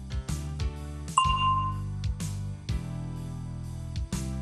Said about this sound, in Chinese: 接下来我们要做问答练习，请大家在听到铃声以后回答问题。